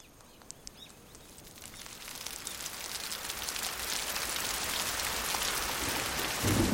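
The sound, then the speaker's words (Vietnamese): Rain pours down steadily as strong wind starts to blow, starting lighter with scattered drops and swelling into a dense, heavy downpour that fills the whole scene with continuous hissing patter, no voices present. “gió bắt đầu thổi mạnh và mưa rơi ào ào.”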